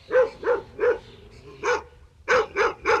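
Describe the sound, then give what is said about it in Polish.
Lili, an eight-year-old female Cavalier King Charles Spaniel, barks seven times: a quick run of three, a single bark after a pause, then three more in rapid succession. No one speaks. “Lili jest ośmioletnią kawalierką, czyli kawalier King Charles Spaniel.”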